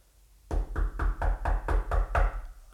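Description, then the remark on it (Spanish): A steady series of about eight firm knocks on the door of a closed production studio at 3 in the morning, evenly spaced with a dull, low thud, each one fairly loud. No voices are heard. “Ájale su golpeteo, ¿y quién, quién es?”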